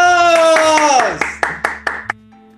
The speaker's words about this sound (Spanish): ¡aplausos!